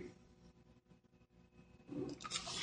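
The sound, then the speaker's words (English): After a quiet stretch, a brief rustle of paper builds up near the end, like a page being turned over as pages are changed during a Bible reading, with no voices. “I have to change pages here again.”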